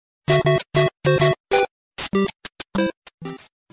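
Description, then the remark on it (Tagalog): A bright, bouncy chiptune melody from a retro platform video game, played as short, clipped square-wave notes in a quick, jaunty rhythm, loud with no voices. “My second to the youngest brother introduced us to this game, Super Mario.”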